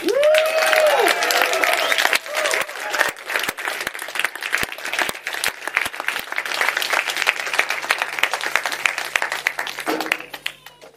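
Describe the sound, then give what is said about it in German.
An audience applauds with dense, steady clapping that carries on for about ten seconds, a few cheers and a whistle rising over it at the start before the clapping thins out and stops. “Also an der Stelle, ihr habt jetzt schon geklatscht, aber ich finde wirklich nicht nur für die beiden, sondern für Judas, für Petrus, für die Mitläuferin, für Pilatus, für alle, die dahinter geschnitten haben, gedreht und ge gemacht haben.”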